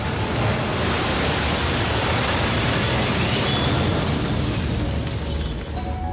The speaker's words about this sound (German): Der Zimmermann hatte die Worte kaum ausgesprochen, als ein mächtiges Gewitter herniederging und eine Sturzflut die Dorfbrücke zerstörte.